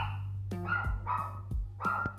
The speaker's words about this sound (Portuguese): Meu cachorro latindo, assim, desgraça.